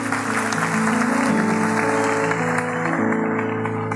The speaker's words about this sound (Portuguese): Vamos aplaudir o Rei dos Reis.